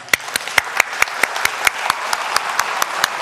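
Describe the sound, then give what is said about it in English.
An audience applauds its singers and worship team, with sharp, evenly spaced claps landing about four times a second over a steady wash of crowd noise. No one speaks. “you know, you like to clap them.”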